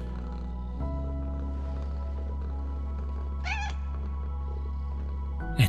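A single short cat meow rises briefly midway through, over a steady low hum, followed near the end by a quick louder sound.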